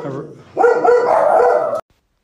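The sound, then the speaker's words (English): A dog lets out a loud, drawn-out bark, sustained for about a second before stopping abruptly, with a brief murmur of voice just before it; the dog is upset about something outside the window. “Yeah, my dog's got upset about something outside the window.”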